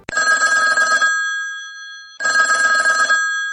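A telephone ringing tone for an outgoing call sounds twice, each burst lasting about a second with a short pause between. It is loud, close and steady, with no voices.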